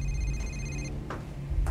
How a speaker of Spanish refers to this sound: Pero como el celular no dejó de sonar, fue hasta la sala y contestó.